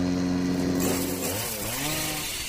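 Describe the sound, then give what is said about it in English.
A chainsaw runs loud, droning steadily and then revving, its pitch dipping and climbing again, with no voices present. “This fleet of sleek, stylish, and supercharged lawn care solutions has it all from self propelled mowers to string trimmers, chainsaws, blowers, and even combo kits.”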